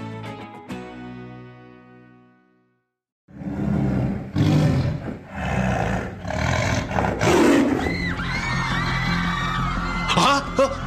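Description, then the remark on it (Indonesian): A tiger roars loudly, a series of deep, rasping bursts rolling on for several seconds after a short ringing tone and a moment of silence. “Kedengarannya seperti suara harimau.”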